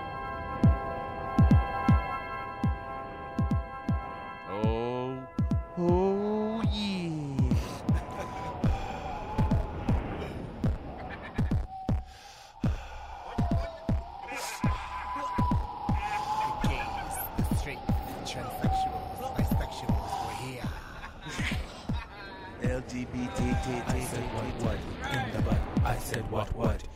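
A recorded song, called a gay anthem, plays: sustained synth chords open it, then a steady thumping beat drives underneath a sung vocal melody that slides and wavers over the rhythm, loud throughout.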